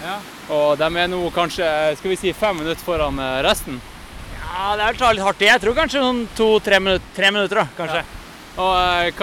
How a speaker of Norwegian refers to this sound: Vi er ganske langt oppe i lia, og dere kan høre en foss rett ved siden av oss.